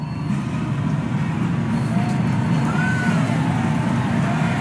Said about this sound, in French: Vous entendez les hurrahs de la foule